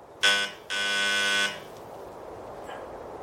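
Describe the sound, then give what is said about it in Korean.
A doorbell beside a rusty gate buzzes twice, first a short harsh burst, then a longer steady one, both loud and raspy, followed by quiet background hiss with no voices. “녹슨 대문 옆에 있는 초인종을 눌렀다.”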